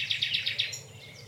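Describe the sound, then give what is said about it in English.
A nightingale trills close by: five rapid, evenly spaced bright notes in quick succession, then a fainter tail of higher chirps as the phrase fades, with a low ambient hum beneath. “pause to just to say a few words, and a nightingale just trilled”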